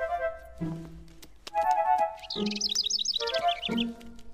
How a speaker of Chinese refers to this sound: 啊，是你的小鸟朋友汤姆。 原来他在这儿。